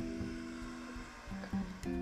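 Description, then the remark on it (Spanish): Motorcycle engines drone, a steady buzzing hum with shifting pitch as they pass by, with no talking. “a pinches motos”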